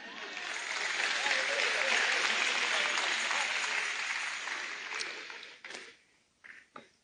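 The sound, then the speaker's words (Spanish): An audience applauds steadily for several seconds, a dense wash of clapping that fades out, leaving a few scattered final claps near the end. “Excelente, gracias, un aplauso.”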